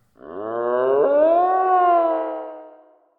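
A deer stag lets out one long, loud bellow, a rich harmonic call that rises in pitch and then holds steady for about three seconds before fading, with nothing else around it.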